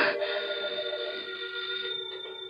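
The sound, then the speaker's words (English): A doorbell rings in one long unbroken burst, a bright, high metallic electric ringing that holds steady and fairly loud for a couple of seconds, with no voices. “I rang the bell.”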